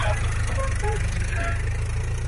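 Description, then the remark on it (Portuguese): A car engine rumbles at a steady idle after starting on the first try, a low, even throb that continues unbroken and fairly loud from start to finish. “Cara, por incrível que pareça, o carro pegou de primeira.”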